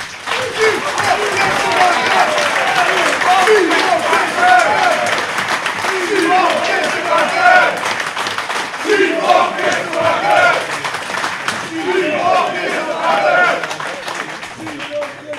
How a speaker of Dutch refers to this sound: Ik denk dat er nog één ding overblijft. En dat is een warm en daverend applaus